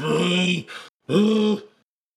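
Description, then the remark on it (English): A person imitates a bear with two loud, sustained growling roars, separated by a brief pause, the second trailing off into breathy rasp. “Good bear noise.”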